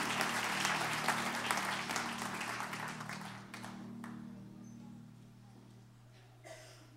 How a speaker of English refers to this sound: Give the Lord a great hand clap of praise as you're being seated.